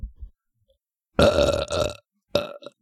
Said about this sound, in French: Ah ah, lol, tu roté.